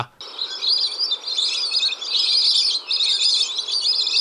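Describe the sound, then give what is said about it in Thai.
A dense chorus of high-pitched trilling and whistling calls from a flock of ducks, continuous and fairly loud, with many overlapping voices and no talking. “อย่างที่2ก็คือเป็ดเนี่ยมีกล่องเสียงพิเศษนะครับ ซึ่งออกเสียงได้หลากหลายมากนะครับ ไม่ว่าจะเป็นเสียงปูนปูนปูนหรือว่ากราบกาบกาบหรือบางชนิดก็เป็นเสียงแหลมแหลมที่รัวรัว”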